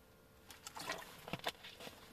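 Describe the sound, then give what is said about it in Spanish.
Someone who has just come back from running takes a few quiet sips of water, a short series of soft wet gulps and swallowing clicks with no talking. “Disculpad que he bebido un poquito de agua porque como ya os he dicho, vengo de correr y estoy un poco sediento.”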